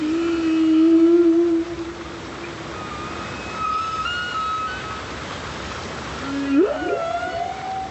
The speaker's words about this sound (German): Der komplexe Gesang der Buckelwale wird schon seit den 1970er Jahren untersucht. In einer Studie wurde jetzt beschrieben, dass die Buckelwale den Song anderer Populationen aufgreifen und weitergeben.